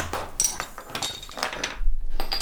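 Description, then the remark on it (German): A beer bottle being opened: a few bright clinks of glass and metal, then short sharp bursts like a cap coming off with a pop. “sollten wir langsam das Flascherl aufmachen”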